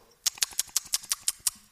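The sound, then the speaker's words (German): A voice imitates a departing commuter train with a quick, even run of about eight sharp hissing "tsch" bursts, fairly loud, with no speech around it. “Ich kann nicht in die einsteigen, ohne wirklich Musik auf den Ohren, weil dort macht immer so, wenn der Zug losfährt, macht, es so ein Geräusch und das ist immer so,”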